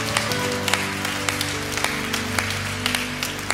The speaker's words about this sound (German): aber ich schlage mal vor, hey, wir geben mal Jesus einen riesen, riesen, riesen, riesengroßen Applaus.